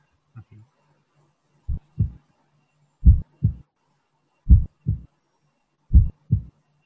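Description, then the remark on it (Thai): A slow, steady heartbeat with paired lub-dub thumps, the first and second heart sounds, four clear double beats spaced about a second and a half apart, low and booming, with a faint hum between them. “อันแรกมันพองออก อันที่สองมันบีบเข้า The first and second heart sounds have unique characteristics.”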